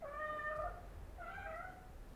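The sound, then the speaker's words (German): A cat meows twice in a row on the ledge outside a window at eleven o'clock, each call drawn out with a wavering, whiny pitch, clear over a faint low background rumble. “Pünktlich um elf fing auf dem Sims vor dem Fenster eine Katze an zu miauen.”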